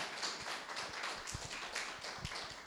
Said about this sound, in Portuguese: Você pode dar uma salva de palmas para o Senhor nessa noite?